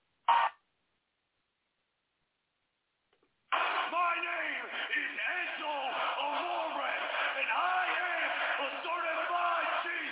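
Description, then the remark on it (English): A wrestling crowd erupts in a loud, sustained roar of cheering and whooping after a short blip and a few seconds of silence, holding steady to the end. The crowd is cheering for two wrestlers who were a big pairing in NXT. “Listen to how much this crowd fucking pops for these two.”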